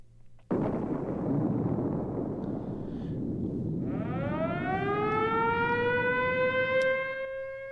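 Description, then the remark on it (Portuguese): A civil defense alert siren wails, a steady rising tone with strong harmonics emerging over a loud, rumbling noisy background that starts abruptly and continues throughout. “é o sinal de alerta dentro do Cruzeiro, minha gente.”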